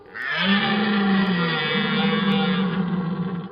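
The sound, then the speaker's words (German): A person imitates a red deer stag's roar: one long, sustained, low guttural bellow lasting over three seconds, loud and rough, with no one speaking. “Oder so röhren wie ein Hirsch, ein Hirschen nachmachen, dass der Echte denkt, cool, hier ist ja noch einer von mir.”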